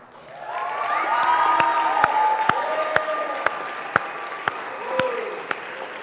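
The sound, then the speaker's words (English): A crowd cheers and whoops loudly for the kitchen staff, with high shouting voices over a steady wash of applause and a few sharp, rhythmic claps cutting through at a regular beat. “Um, and then I think the biggest cheer of all, and there, many of them are not in this room right now, but we need to make some noise for the kitchen.”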